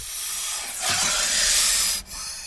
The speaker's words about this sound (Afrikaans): Daar is 'n gesis agter haar. Sy kyk versigtig om en skrik haar lam toe sy 'n slang sien.